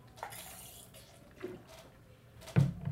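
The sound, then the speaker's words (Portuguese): Water sounds from someone quickly drinking water, with soft sips and small sloshes, then a louder splash near the end as some water spills. Nobody speaks. “Beber aqui minha água rapidinho.”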